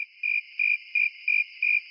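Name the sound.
crickets chirping sound effect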